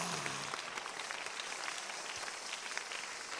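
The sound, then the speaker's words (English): A crowd claps steadily throughout, a dense, sustained wash of many hands at a moderate level, with no pauses or speech. “Stop clapping and listen to this.”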